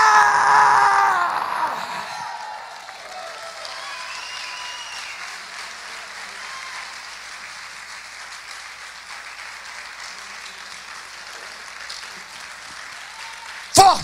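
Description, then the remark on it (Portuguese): A church audience bursts into sustained applause for the word of the Lord, with loud clapping and some shouting at first, settling into steady, dense clapping that continues throughout, ending with a brief louder burst. “Forte esse aplauso à palavra do Senhor.”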